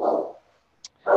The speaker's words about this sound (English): if you hear barking in the back, it's my English bulldog Roxy